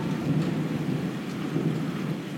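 Low, rolling thunder rumbles continuously beneath a steady patter of rain, the storm sounding full, with no voices present.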